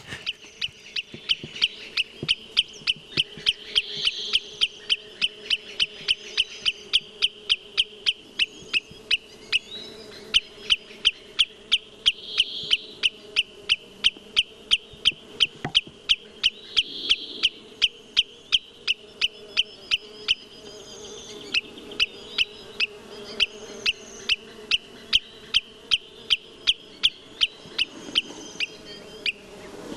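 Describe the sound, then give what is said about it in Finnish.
Common greenshank alarm calls: a steady, insistent series of sharp, high-pitched notes repeated several times a second for the whole stretch, loud and clear with no talking. “Niin, ja sitten se valkoviklo rupeaa varoittaa sen jälkeen.”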